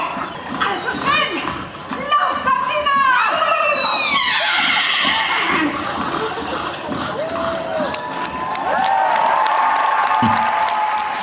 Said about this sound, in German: völlig zu Recht Applaus.